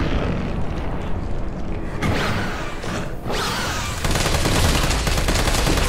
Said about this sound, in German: Carlos verlor keine Zeit und feuerte mehrere Magazine in das Wesen.